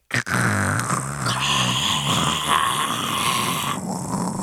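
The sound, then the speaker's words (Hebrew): A voice imitates the loud static heard on putting on magic glasses in a game, a sustained, raspy hiss lasting about four seconds. A growly buzz runs underneath, steady, and there are no spoken words. “אתה שם אותם ואתה מרגיש איזשהו רעש סטטי, שממש ממלא את האוזניים שלך, כזה...”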